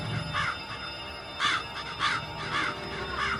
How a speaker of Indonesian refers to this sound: Aku mencoba mengabaikan suara burung gagak itu, tapi semakin lama aku semakin terganggu dengan suara itu karena suaranya lumayan keras.